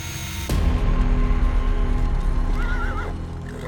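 A horse-drawn carriage rumbles in abruptly with clopping hooves and rolling wheels, steady, and near the end the horse gives a short, wavering whinny. No one speaks.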